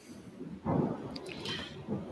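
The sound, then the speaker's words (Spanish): Wet dripping and splashing sounds patter unevenly, a steady drizzle of water with a louder burst partway through, like heavy rain falling outside a house. “Creo que se está cayendo el cielo en todos de nuestras casas de cada quien.”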